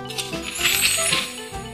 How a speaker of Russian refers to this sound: Слышали? Это закрылась наша волшебная книга «Азбука путешествий».